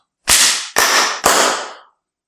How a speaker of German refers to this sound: Wir haben auch eine neue Location. ja, die schalten ein bisschen, oder? Wenn man mal hier so klatscht.